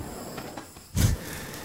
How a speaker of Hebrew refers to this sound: אתם שומעים פה עכשיו ברנר. כן, שומעים את זה.